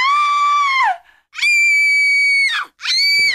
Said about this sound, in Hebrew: תודה ולצלילי צווחות של ילדות.